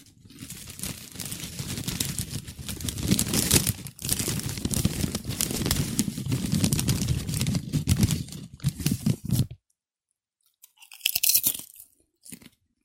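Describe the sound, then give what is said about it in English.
A bag of Co-op Gold kettle cooked chips crinkles and crackles steadily for several seconds, loud and busy, then stops; after a short silence a brief burst of crinkling follows. “Check it out. Thank you, Co ops of Westman. Yeah, kettle cooked chips.”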